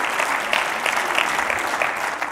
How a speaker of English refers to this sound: That's, yeah, come on, give the Lord a big round of applause.